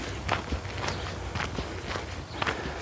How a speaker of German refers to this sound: Ich bin gerade kurz vor Leipzig am Ortsrand von Alten, ähm, im Feld. Und man hört, dass ich auf einem Feldweg laufe.